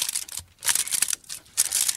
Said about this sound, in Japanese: じゃあ、銀の紙に入ってて美味しそうだな。あれこれどうやって開けるんだろう